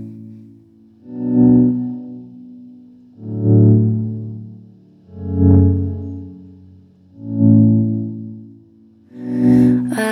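A reggae-tinged remix plays with heavily processed, layered sounds swelling in a steady pulse about every two seconds, thick and warm in the low range, loud and close.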